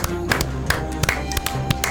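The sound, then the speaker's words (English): A small group claps together for Jonathan Ellerby's win of Survivor 2023, a quick irregular patter of sharp claps at moderate volume, with a steady low background hum running underneath. “We clapped”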